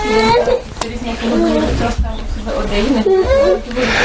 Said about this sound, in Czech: Já se moc omlouvám, já vás moc neslyším přes, přes dětský křik, tak kdybyste mohla třeba trochu hlasitě.